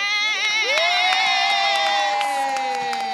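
A crowd cheers loudly and steadily in response to a mention of Jacksonville, Florida, with high whoops and shouting voices rising over a dense wash of applause throughout.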